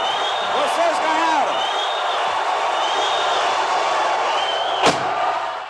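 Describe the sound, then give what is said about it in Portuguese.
A steady roar of an audience booing a performer's new arrangement of a song fills the whole stretch, then a single sharp crack rings out near the end as the performer gives up, smashes his acoustic guitar on stage and throws it at the audience. “Então tem aquela cena muito famosa dele no final desistindo e quebrando o violão e atirando contra a plateia, né?”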